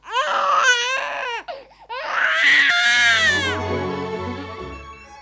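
A newborn baby, just delivered, wails loudly inside a palazzo, a series of sharp, strained cries with brief gasping pauses, the last cry trailing off as a low hum continues underneath.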